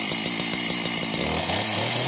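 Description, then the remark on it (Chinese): A chainsaw runs steadily at a loud, buzzing drone, its engine note wavering and dipping slightly in pitch partway through, with no voices present. “这种替代性燃料能驱动电锯等中小型机器，也能为汽车提供动力”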